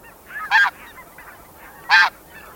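Canada geese honk, two loud, nasal calls spaced about a second and a half apart, with fainter honks from other birds in between. No one speaks.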